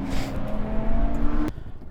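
Loud engine roar of a car at speed during a Nordic Time Attack track day at Mantorp Park, with a sustained tonal whine that cuts off abruptly near the end, leaving a quieter rumble of motors in the background.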